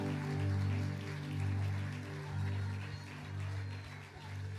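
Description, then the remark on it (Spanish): Steady, dense applause crackles continuously for several seconds, layered over a sustained low musical drone with held tones that swell and fade. “Fuerte ese aplauso, fuerte.”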